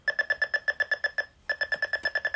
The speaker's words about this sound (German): Ihr hört schon, die Tonsignale werden je nach Abstand des Hindernisses ähm, langsamer oder schneller. Wenn ich jetzt auf den rechten Knopf drücke, kann ich die Lautstärke der Tonsignale einstellen.